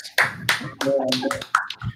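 A handful of sharp hand claps, about five or six, arrive at an uneven pace. A brief tonal voice-like sound rises briefly among them.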